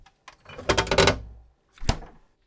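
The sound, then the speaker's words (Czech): A refrigerator door is pulled open to get a beer, with a rattling clatter of bottles inside, then swung shut with a single solid thud. Fairly loud, with no voices. “šel si do ledničky pro pivo.”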